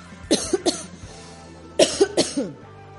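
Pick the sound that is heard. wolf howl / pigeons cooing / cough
cough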